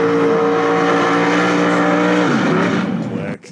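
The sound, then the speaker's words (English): A car engine revs loudly, holding a steady, throaty drone before the pitch sinks as the revs fall, then cutting off abruptly at the end. “Listen to that baby purr.”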